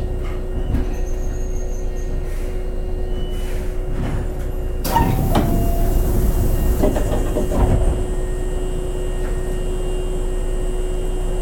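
A Hankyu 7000 series Kobe Line local train running from Nishinomiya-Kitaguchi to Kobe-Sannomiya, with a steady low rumble and a constant electric hum, broken by a burst of clunks and rattling midway before settling back to an even drone. No one speaks.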